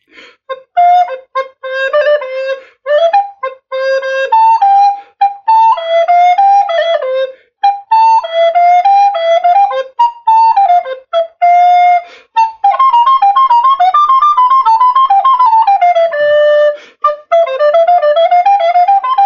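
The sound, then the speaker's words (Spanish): A recorder plays a steady, bright melody of short and held notes with brief pauses between phrases, loud, with no voices. “Sí, es la melodía de la flauta dulce. Escuchemos cómo suena.”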